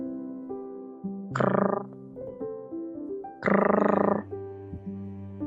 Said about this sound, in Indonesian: Oh, itu hanya bunyi bambu.